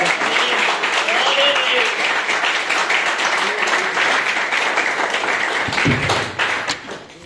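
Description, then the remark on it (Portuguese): A church audience applauds in praise of the Lord, a steady, dense, crackling wash of many hands clapping at once. It holds strong for several seconds before thinning out at the end, with a few voices mixed in. “E eu agradeço a oportunidade e as palmas que louvam ao Senhor.”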